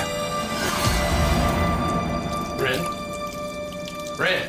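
A tap is opened and runs steadily with a splashing, hissing stream of water, while a couple of brief vocal sounds break in over the flow.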